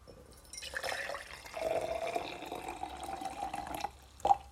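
Boiled water poured into a cup for drinking, a steady splashing stream of about three seconds whose pitch climbs as the cup fills, followed by a brief clink.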